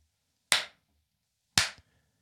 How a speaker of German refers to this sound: Okay, then there's a very big echoey clap.